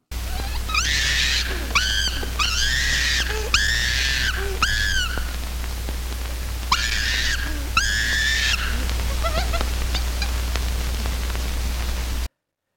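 Excited chimpanzee calls, a run of shrieking, wavering hoots in bursts, ringing out loud above a constant hiss and low hum of an old, noisy tape recording.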